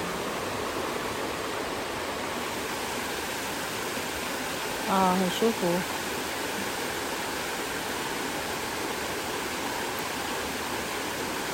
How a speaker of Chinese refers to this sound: 来这里听那个溪流的声音。我们刚刚走到那个五百公尺的地方，听那个溪流的声音。